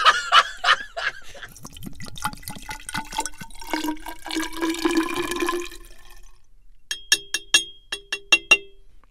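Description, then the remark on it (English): Purified water pours steadily into homemade French wheat vodka to dilute it, with bubbling glugs for several seconds, then stops, followed by a short series of sharp drips or clinks. “Okay, and so, what are you cutting it with again? Water.”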